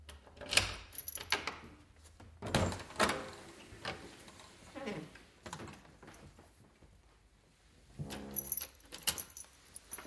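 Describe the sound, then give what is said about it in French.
Keys jangle in bursts of bright metallic clinks, followed by the clunk and creak of a door opening, fairly quiet with a low hum underneath. A man coming home opens his door, in the radio fiction Météor. “Un homme rentre chez lui, il y a quelqu'un, j'ouvre la porte, et je sais qu'il y a quelqu'un.”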